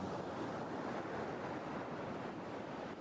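A steady, full roar of ocean surf washes continuously on the shore, with a hint of wind, fairly loud with no pauses and no voices.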